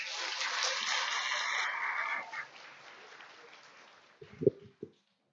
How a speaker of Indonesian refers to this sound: Tepuk tangan untuk Anda.